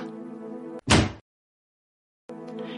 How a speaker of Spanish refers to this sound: Y a continuación, agradeciéndole la cita, metióse en su casa y cerró la puerta.